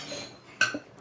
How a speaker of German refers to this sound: Ich muss nur kurz hier was aus der Tasche holen.